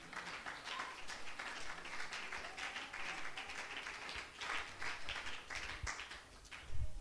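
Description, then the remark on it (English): A crowd claps steadily for several seconds at a preacher's call during a sermon about healing, a dense, continuous patter of many hands at moderate loudness, with a slight surge near the end. “Oh, Clap your hands again.”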